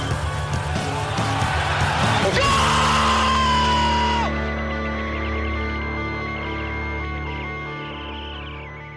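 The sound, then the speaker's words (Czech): A loud first-league football stadium crowd roars and yells, a dense swell of many voices surging together, peaking sharply and then sustaining as a broad, rumbling cheer that slowly eases off. “Dobrý den, pokud slyšíte ty zvuky tady v éteru, tak to není volání hospody, baru ani něčeho dalšího, ale první liga volá zpátky na tribuny”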